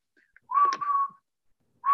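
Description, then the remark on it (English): A clear, steady whistled melody from a cartoon theme song, one sustained phrase with a few brief broken notes, then a fresh note starting at the end. No talking, fairly loud. “yes, he learned the entire whistling part, right?”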